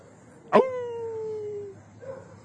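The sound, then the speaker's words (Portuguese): A person imitates a wolf howl: one short howl that starts abruptly, holds a steady tone for about a second while sliding slightly downward, then trails off into quiet. “no meio do mato, na escuridão, eis que aparece um maluco uivando como, como lobo. Ajuda aí, uivar”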